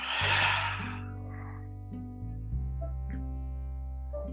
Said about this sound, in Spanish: Doy una respiración profunda tratando de llenar de aire mis pulmones lo más que pueda y exhalo por boca dejando salir un sonido.